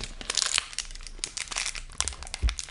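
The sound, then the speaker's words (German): Loud crunching and crackling, a dense run of sharp brittle bursts like someone chewing a crunchy snack, continuing steadily with a heavier crunch near the end and no voices. “Boah, was, was knusperst du? Das ist so laut, diese Scheiße.”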